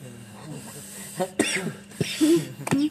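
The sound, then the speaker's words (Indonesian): A person coughs in several short, harsh bursts spaced across a couple of seconds, with breathy noise between them and no clear talking. “batuk nih”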